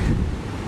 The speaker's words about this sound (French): et on entend juste le bruit des vagues. C'est quand même assez magique d'avoir ça à deux minutes de la maison. On est entouré de dunes et la plage où je suis s'appelle Del Monte Beach.